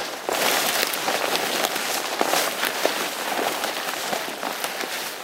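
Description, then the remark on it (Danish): Steady, dense rustling and crackling of stinging nettles brushed aside as someone walks through a thick stand of them on a former field, fairly loud, with scattered sharper snaps and no voices. “Kommer vi igennem sådan en skov af brændenælder her.”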